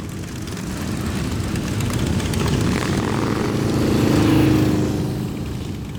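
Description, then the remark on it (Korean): A deep, steady engine rumble from five touring motorcycles coming up a road from below a hill on the opposite side swells gradually as they draw closer, peaking loudly near the end before easing slightly, with no voices present. “투어용 바이크 다섯 대가 멋진 엔진 음을 내고 달려오는 것이 아닌가.”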